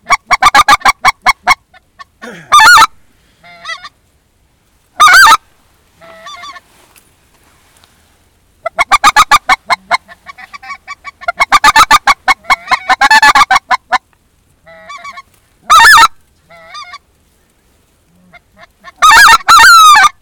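Geese honk in loud, clustered bursts, several birds calling over one another in rapid harsh volleys separated by brief quiet gaps, with no one speaking.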